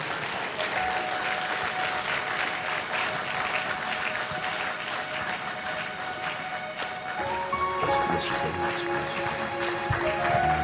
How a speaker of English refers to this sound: bigger hand clap from you than that. If the Lord has been good to you, stand up on your feet, throw your hands up, and say, Only you, God. Let's give the Lord a great big hand clap on this morning.